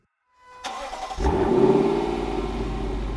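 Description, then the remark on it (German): A Lexus LC500's naturally aspirated V8 engine starts with a sharp crank, then settles into a loud, deep, steady rumble with a brief rev, with no one speaking. “Sauger V8 ist immer doch irgendwie immer noch am besten.”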